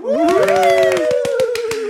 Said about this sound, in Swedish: Herregud, häromdagen så låg vi över värvet på iTunes. En applåd!